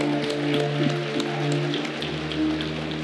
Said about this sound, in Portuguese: pode aplaudir.